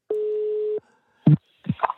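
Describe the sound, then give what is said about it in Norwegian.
A single steady electronic telephone ringing tone, loud, lasting under a second, followed by a click and brief handset noises as the line connects on a call to Brann legend Erik André Huseklepp. “Eh, ja, nå ringer telefonen, og nå, han, han, har lovet meg at han skal være tett på telefonen.”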